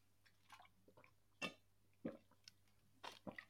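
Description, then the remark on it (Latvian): Wet gulping as someone drinks from a plastic bottle: four or five swallows with soft squishy liquid and mouth noises in between, quiet otherwise and no talking. “Um, oh, tas bija liels gulbs.”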